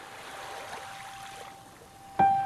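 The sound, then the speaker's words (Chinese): Light, gentle drizzle falls on the sea at dusk: a soft, steady hiss of fine droplets pattering on the water surface, ending with a sudden louder strike and a sustained ringing tone. “现在大海又重新下起了雨，但是雨不是狂风暴雨，而是好像是江南的那种毛毛雨，轻轻柔柔的打在海面上。”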